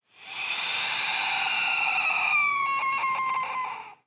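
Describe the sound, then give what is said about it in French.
A loud, harsh bird cry rings out in one sustained, strained call with layered shrill tones, breaking into a rapid stuttering warble near the end before cutting off. No one speaks. “Je suis partie en courant, sans me retourner, et arrivé à ma porte, j'ai entendu le même cri d'oiseau terrifiant.”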